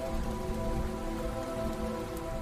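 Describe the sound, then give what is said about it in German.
Raindrops patter steadily on a roof in a dense, even wash of sound, with a soft sustained hum underneath and no voices. “Schließ deine Augen und lausche den Regentropfen, die auf das Dach fallen.”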